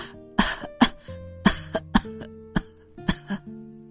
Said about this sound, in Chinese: 因为情绪突然变得激动起来，她又咳嗽起来。